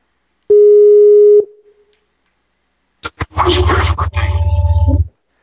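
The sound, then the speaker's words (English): A telephone dialing tone as a call is placed sounds once as a loud, steady mid-pitched beep for about a second, then after a pause the line fills with crackling, buzzing noise over a low hum. “We're dialing”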